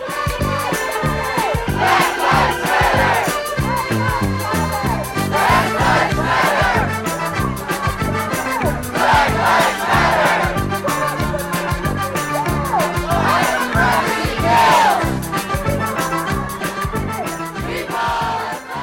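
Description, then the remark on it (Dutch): A large crowd at a climate march chants in loud, rhythmic waves, voices swelling together in repeated shouted phrases over a steady background roar for the whole stretch. “En daarom is het altijd een gezellig braderiesfeertje op zo'n klimaatmars.”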